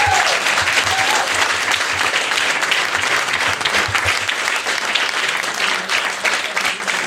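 Sustained audience applause, a dense, even wash of many hands clapping at a steady loud level for several seconds, with no voices standing out.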